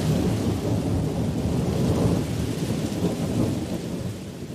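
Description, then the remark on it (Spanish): A thunderstorm with heavy rain pouring steadily and deep rumbling thunder rolling underneath, loud and continuous throughout, with no voices. “Y no tardó en caer una furiosa tormenta.”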